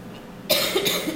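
A sudden burst of coughing, a couple of harsh, breathy coughs in quick succession after a quiet moment, fairly close and loud.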